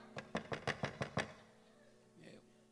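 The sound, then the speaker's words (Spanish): Seven quick, evenly spaced knocks on a house door on a Saturday morning rap out in a brisk, loud rhythm, followed by a quiet pause and a faint murmur. “Y toca la puerta.”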